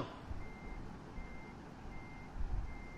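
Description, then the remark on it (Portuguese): A truck's reversing alarm beeps steadily in a regular rhythm as the truck parks, several evenly spaced tones over a low rumbling engine, with no one talking. “Aí é estacionamento do caminhão,”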